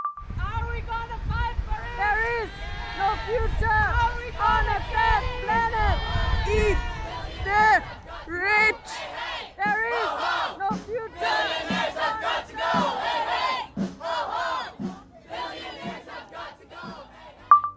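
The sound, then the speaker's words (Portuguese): A large crowd at a 2019 rally for Democratic candidate Elizabeth Warren in the United States chants a slogan in unison, loud and rhythmic, with repeated shouted phrases rising and falling over a steady roar of many voices. “E só para citar alguns dos seus usos já nesse século, nos Estados Unidos, em 2019, ela foi usada pela multidão em um comício da candidata democrata Elizabeth Warren”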